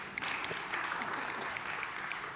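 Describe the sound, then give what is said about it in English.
An audience applauds in a steady, dense wash of overlapping claps at a moderate level, with a few sharper individual claps standing out. The applause continues evenly, with no voices. “Not so much applause about that,”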